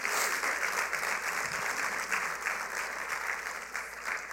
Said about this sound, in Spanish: Así que yo sé que ya lo hemos hecho como cinco o seis veces, pero vamos a dar un aplauso otra vez a todas las mamás aquí.